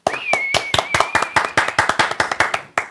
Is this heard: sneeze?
no